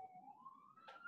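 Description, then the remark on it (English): A faint emergency siren wails with a steady rising pitch, heard on its own with no one talking and only a soft background hush. “Uh, you can hear the sirens right now.”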